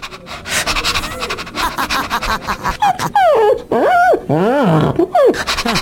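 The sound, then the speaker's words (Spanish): A dog pants rapidly and steadily for a few seconds, then breaks into high, wavering whines and yelps that rise and fall in pitch. “el novio es mi perro”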